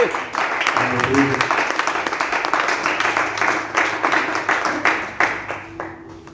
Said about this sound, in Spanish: Amén. Un aplauso, Gloria a su nombre.